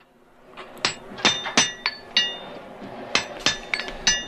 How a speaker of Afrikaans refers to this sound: Ek wil net die twee swart perde se hoefuisters reg klink.